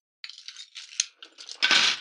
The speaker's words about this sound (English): Oh, my keys are on. My keys are on my hip, making noise.